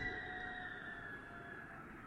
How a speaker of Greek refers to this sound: Ακόμη και όταν ο αέρα μέσα στο κτίριο του, της φιλοσοφικής φυσάει έτσι όπω τον ακούμε τώρα.